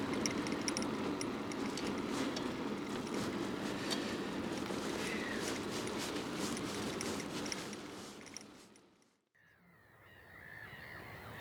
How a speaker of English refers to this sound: We've just stopped by the roadside. Listening to this, yeah, we're listening to this gull colony. You think it's uh, seagulls, some yeah. type of seagull? Maybe black-headed gulls.